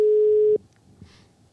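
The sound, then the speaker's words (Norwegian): A steady electronic ringback tone of an outgoing phone call sounds for about half a second, then cuts off abruptly, leaving faint background noise and a brief soft click; the person called does not answer. “Skal vi høre om han tar telefonen, da?”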